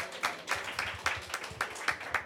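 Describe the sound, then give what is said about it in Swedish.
Audience applause: a steady patter of many hands clapping with repeated sharp bursts, moderately loud and unbroken for a couple of seconds, with no voices over it, for people who came up on stage. “ni är värda en stor applåd.”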